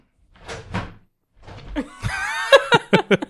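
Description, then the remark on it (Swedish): A chair scrapes and squeaks across the floor as it is pulled in to the table, ending in a few sharp knocks of wood against the table. “Vänta, eller jag drar in stolen.”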